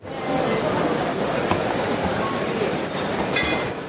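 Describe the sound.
Busy hall ambience at a professional wine trade fair in Düsseldorf: a dense, steady wash of many overlapping voices, with occasional light glass clinks and clatter rising briefly through the crowd noise.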